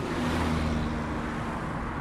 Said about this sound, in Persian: درمانده برای گرفتن تاکسی دست تکان داد چندین ماشین بی تفاوت از کنارش گذشتن تا اینکه کسی ترمز کنان جلویش ایستاد